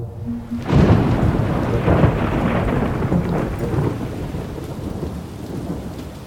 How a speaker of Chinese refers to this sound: 喵，下雨了。 哎，这雨可真奇怪呀，竟然是黑色的啊！